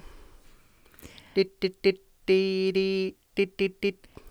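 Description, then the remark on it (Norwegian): A voice imitates the Nokia text-message tone, Morse code for SMS: three quick beeps, two long held notes, then three quick beeps again, fairly loud, after a brief murmur. “Det er morsekoden for SOS. Nei, SMS, det.”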